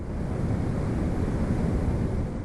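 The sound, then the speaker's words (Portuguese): The Iguaçu Falls roar in a constant, dense rush of heavy water, loud, with a deep low rumble and no pauses or voices throughout; after recent rains the flow is 2.4 million liters per second, one million above normal. “Quem visitou as cataratas do Iguaçu nessa sexta-feira foi presenteado com uma vazão de 2 milhões e 400 mil litros de água por segundo, um milhão a mais que a vazão normal.”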